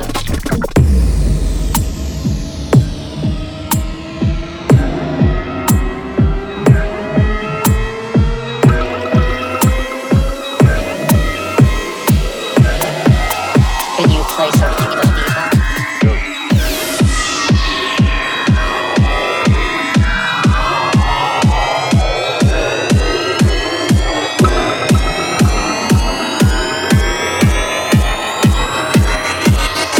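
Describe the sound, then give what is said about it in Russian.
An electronic dance track plays loudly on Radio Record with a steady pounding four-on-the-floor beat, layered with synth lines that sweep upward and downward throughout, with no voices. “Слушайте и наслаждайтесь качественной музыкой на Радио Рекорд волне.”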